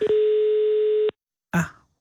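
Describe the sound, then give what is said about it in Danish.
A steady telephone dial tone from a newly installed telephone system at Radio 24 in Copenhagen hums loudly for about a second and then cuts off abruptly, followed after a short pause by a brief clattering burst. “Det er, fordi vi har fået et nyt telefonsystem installeret i løbet af sidste time, og alt er i panik herinde.”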